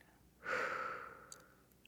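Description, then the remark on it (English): A single long, deep exhale during a guided breathing exercise, a soft breathy rush that starts abruptly and slowly fades over about a second and a half, quiet with no talking. “And we're going to take one deep breath in and out really reflecting on what's coming up for you.”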